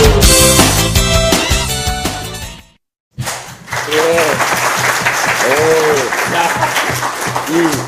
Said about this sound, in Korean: 우렁찬 박수 소리.